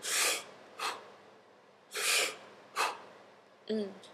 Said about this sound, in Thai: ก็คือ holotropic breathwork มันจะเป็นการหายใจที่เป็นเหมือน hyperventilation